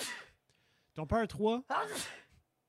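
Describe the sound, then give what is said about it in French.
A single short, breathy sneeze bursts out at the start, sharp and hissy, and then a person starts talking. “à tes souhaits.”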